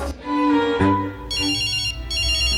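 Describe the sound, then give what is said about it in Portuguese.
A telephone rings loudly, with bright, shrill bursts that repeat in a steady pattern over a tonal, music-like hum. No one speaks. “Oh, olha só, gente, o telefone tocando.”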